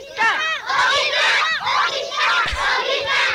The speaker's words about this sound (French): Le jingle.